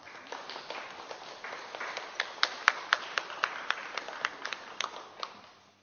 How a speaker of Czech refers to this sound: A já můžeme taky zatleskat, i když tu není.